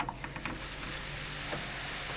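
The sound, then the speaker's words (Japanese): A flattened disc of taco meat, shaped like a thin hamburger patty, sizzles steadily in a frying pan, a dense, crackling hiss with small pops scattered through it, continuous and fairly loud with no voices. “じゃあタコスミートですねこれをあのもうそのまま1個丸々こう平たく円盤状に伸ばしていくんですよ見ない光景ですよねこれね、うん、でこれをフライパンの中に”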